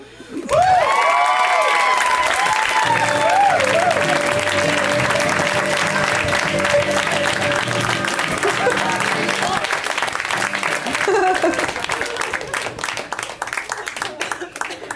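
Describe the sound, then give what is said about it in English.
Loud, sustained audience applause with cheering and whoops at a comedy show, for comedian Andy Kindler and the night's performers, from start to finish, a dense wash of clapping with shouted voices rising over it before easing slightly near the end. “In fact, why don't you keep it going for everybody you saw tonight?”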